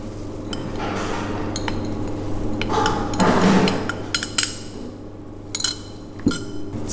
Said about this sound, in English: We mix everything together very good and then we'll need to put it in the fridge for half an hour.